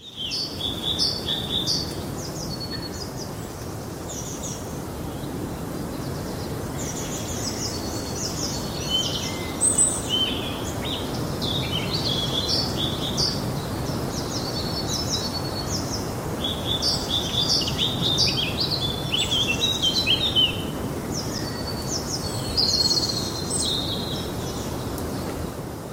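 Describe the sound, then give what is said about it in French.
Steady wind rushes through the tree branches of a forest while many birds chirp and sing in overlapping bursts, with no one speaking. “Alors on pourrait écouter ces bruits de forêt, en tout cas moi je pourrais les écouter pendant, pendant des heures, ces branches, euh, on entend le vent dans, les branches, euh, les, les chants d'oiseaux, euh, tellement ces bruits nous font du bien,”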